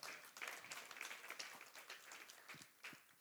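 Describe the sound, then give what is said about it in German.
A church audience applauds during a service, a dense wash of many hands clapping steadily for a few seconds, fairly quiet and reverberant. “Bei all dem, was du tust, ihr dürft gerne klatschen.”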